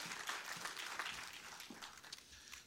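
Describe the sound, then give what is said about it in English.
A church audience applauds the Lord during the offering: dense, steady clapping from many hands for a few seconds, fairly soft, with no voices rising above it. “Applaud the Lord, let the basket come by.”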